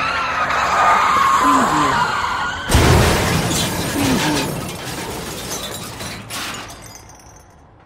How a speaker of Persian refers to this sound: همین که به خودش آمد چراغ را رد کرد و وسط سیلی از ماشین قرار گرفت صدای نره بوغ و ترمز ماشین ها بلند شد و با چرخاندن فرمان از یکی دو تای آنها گذشت اما سومی